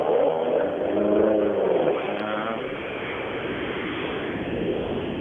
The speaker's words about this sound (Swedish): Nu gav även Johan Svensson sig iväg som kanske fått lite ordning på bilen. Hoppas att de kan ta sig till, till start på eh, S9.